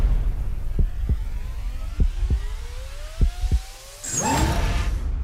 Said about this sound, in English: The drone is controlling itself.